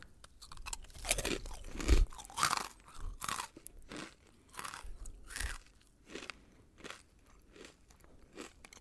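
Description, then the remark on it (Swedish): Repeated crisp crunching of stale ice cream wafer biscuits that have been in the cupboard a long time being chewed, a steady series of sharp bites and crackles, loudest early on and gradually easing, with no talking. “Det smakar som eh, alltså sådana här voff, alltså glassvåffelkex som har varit i skåpet riktigt länge.”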